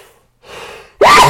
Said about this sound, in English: your sneeze sounds like Goofy sneezing